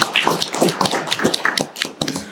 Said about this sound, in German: Vielen Dank, äh, verehrtes Publikum. Ihr wart großartig. Ein Applaus an das Publikum.